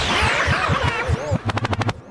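A swirling, noisy sweep over thumping beats gives way to a rapid burst of six sharp, evenly spaced gunshot sound effects, loud, like a DJ's machine-gun drop.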